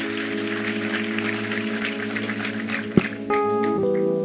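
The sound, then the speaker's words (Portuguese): An audience claps steadily for God as a sustained keyboard or organ chord plays underneath, the dense clatter of many hands before the music shifts to a new chord. “Vamos aplaudir a ele.”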